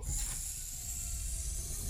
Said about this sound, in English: You notice you can once again hear your surroundings as the hiss of the airlock doors release and they open ahead of you.